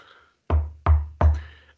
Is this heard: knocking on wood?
yes